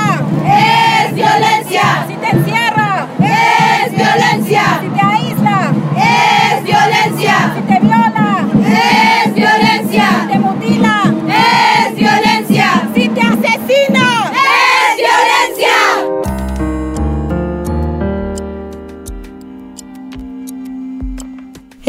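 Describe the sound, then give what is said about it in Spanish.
A large crowd of women, hundreds of thousands, chants loudly and rhythmically at a street protest against violence in Mexico City on 8 March for about fifteen seconds, then the chanting cuts off and a steady ticking clock-like pulse with low tones follows. “Miles, decenas de miles, cientos de miles de mujeres tomaron las calles de la Ciudad de México.”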